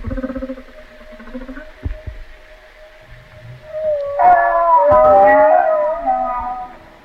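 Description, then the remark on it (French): A humpback whale gives a soft, cooing moan with smooth, warbling pitch bends, building into a louder modulated call midway, heard alone over a low underwater rumble with faint clicks. “espèce de roucoulement là, j'en avais pas entendu, comme ça.”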